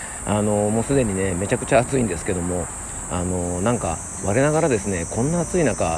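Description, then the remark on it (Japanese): A steady, high-pitched chorus of cicadas buzzes continuously outdoors in midsummer near Hanzomon by the Imperial Palace in Tokyo, while a man who has just finished jogging a lap around the palace talks and laughs, slightly out of breath. “皇居今一周あの走り終わりましてまた半蔵門付近に帰ってまいりました、えー、もうねセミの音聞こえますかね皆さんねもうセミが鳴いてですねもうなんか真夏という感じで”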